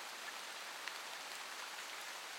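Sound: heavy pouring rain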